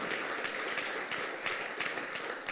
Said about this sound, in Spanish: Dale el aplauso al Señor, se lo merece, aleluya.